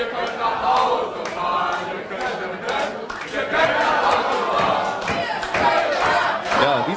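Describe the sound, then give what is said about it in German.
A pub crowd chants "Ihr könnt nach Hause fahren" together in unison, loud and rhythmic, with rising and falling sung phrases repeated over several seconds amid a rowdy, continuous din. “Auf drei. Eins, zwei, drei. Ihr könnt nach Hause fahren.”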